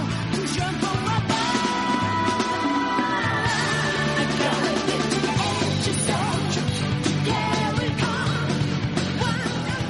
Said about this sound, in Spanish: Soul Edge. Correcto esa pedazo de intro que, que, que nos marcaba ahí en la Play